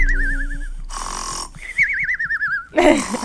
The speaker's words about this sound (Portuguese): Tá roncando muito rápido é, é nossa. Tá eu... um BPM meio, meio depressa. É verdade. tá dormindo assim, ó. É, tá. tá dormindo com pressa.